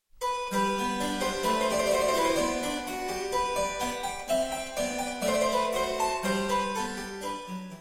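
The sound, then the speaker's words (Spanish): A clavichord, a keyboard instrument with struck strings, plays a steady, continuous melody of bright, string-toned notes with rich overtones, heard alone, with no talking. “Y el clavicordio a diferencia del clavecín, es un tipo de teclado con cuerda percutida, es decir, como el piano, fue su antecesor, y cuando pulsas la tecla, un mazo martillo la golpea y suena así.”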